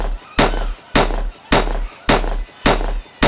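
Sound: gunshot sound effect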